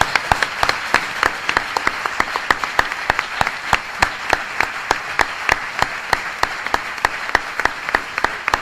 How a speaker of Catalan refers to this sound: abans de començar l'acte, quan hem entrat, hi ha hagut un aplaudiment. No, que ells no, no ha sortit l'aplaudiment? No Ostres! Doncs pues tornem a aplaudir.